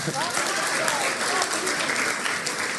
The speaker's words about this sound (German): Und da können einmal kurz meine Helfer nach vorne kommen, um euch das mal ein bisschen zu zeigen. Dürft ihr gerne einen Applaus geben.